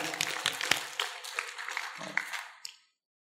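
A short burst of audience applause, many hands clapping in a dense, crackling wash for a couple of seconds before quickly fading out.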